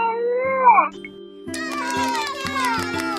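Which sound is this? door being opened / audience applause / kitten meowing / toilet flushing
kitten meowing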